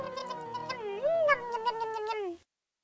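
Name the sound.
cat meowing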